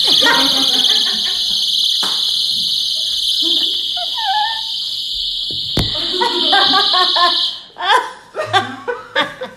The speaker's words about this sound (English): Is that your sound magic? it's a rape whistle.